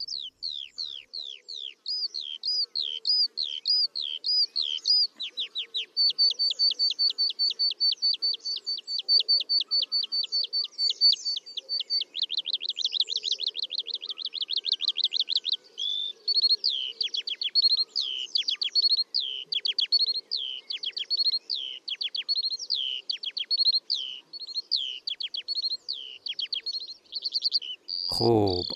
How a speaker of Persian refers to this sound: چکاوک آسمانی که توی ایران هم داریمش بدون داشتن تار صوتی میتونه اینطوری تا بیش از ده دقیقه پیوسته جغرافیای اطرافش رو مست صدای خودش کنه. فعلا بیایید با هم گوش جان بسپاریم به آوای ملکوتی حضرت استاد چکاوک آسمانی تا بعد بریم سراغ داستان صدا.